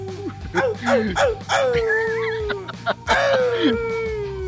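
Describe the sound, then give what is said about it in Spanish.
A person imitates a dog howling, producing several rising, wavering howls in quick succession, then a long drawn-out wail, loud with no other talk. “hombre, hoy, hoy de hecho sí amanecí así raro como que... Aullando.”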